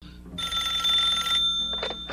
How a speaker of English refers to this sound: So, yes, he calls the house, and Gosalyn answers the phone.